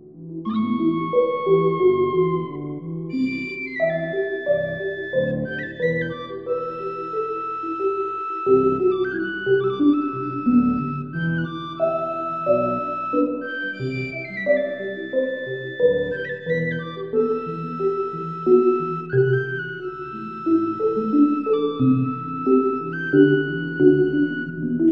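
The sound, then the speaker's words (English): A penny whistle repeats a bendy minor-second figure, sliding between two close notes, soaked in reverb as if far off, over a dense, low sustained musical backdrop with no voices. “repeated minor second, very bendy, like a very drenched in reverb, like coming from the distance, almost like the ocean calling you, and very hypnotic.”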